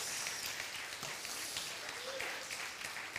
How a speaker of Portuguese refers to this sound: Aplauda o Senhor, meu irmão. Glória a Deus. Glória a Deus.